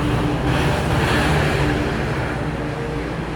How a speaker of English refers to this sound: I I realize, wow, two old-fashioned buses. I can tell by the sound that these are not electrical buses.